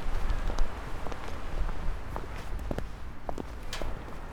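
Footsteps walking from the Paper Tower down toward town along the Remstrup Å stream in a steady, unhurried rhythm, each step a short crunching tap over a low, constant background rumble.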